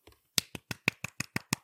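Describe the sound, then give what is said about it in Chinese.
Quick, steady hand clapping: about eight crisp, sharp claps in an even rhythm, heard alone with no talking, after a faint soft tap at the start. “快点，我们来赶快拍拍手。”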